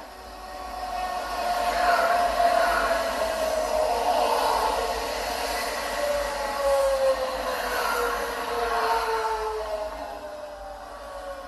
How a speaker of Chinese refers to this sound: 那我们听到的这个就是火车的声音。那这个火车，因为我本身是对铁道有一点兴趣，所以我会找一下火车。那个就是属于铁道里面有个 EMU 五百型的列车，那是海线最常用的火车车型。也就是你从这一段就可以听到，就是海线火车的特色。